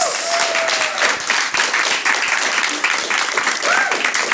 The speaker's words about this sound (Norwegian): Tusen takk for invitasjonen. Kan vi høre en ordentlig applaus?